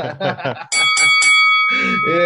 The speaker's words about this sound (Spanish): Inserte campanada. Pim, pim, pim, pim. Ahí la eh, pones en los efectos. A ver, el, el, que edita, por favor, hay unas campanadas, eh,